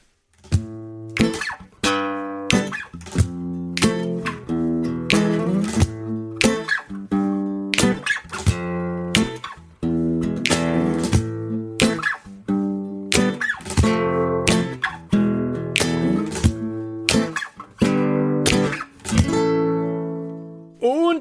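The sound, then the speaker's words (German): A short musical jingle plays on its own: bright, sustained tonal notes over a steady rhythmic beat with crisp percussive hits, holding a fairly even loudness before ending on a final ringing note. “Und äh, dann lasst uns doch jetzt zu unserem Hauptthema übergehen nach einem kurzen Jingle.”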